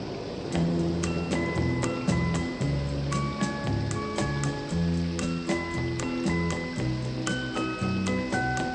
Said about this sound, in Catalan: aquesta cançó dels …, perquè, entre altres coses, recrea tècnicament eh, el so de la pluja caient